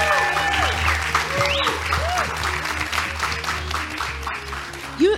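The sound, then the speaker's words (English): An audience applauds steadily for about five seconds to welcome a guest being introduced, a dense, continuous wash of clapping with scattered whoops and cheers rising above it, and a brief louder shout near the end. “Let's clap it up for him.”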